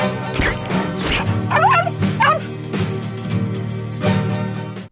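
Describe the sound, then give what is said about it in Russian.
A dog yips and whimpers, with a few sharp high-pitched yelps early on and then rising, wavering whines, against a steady low background hum. “Сладкий пес.”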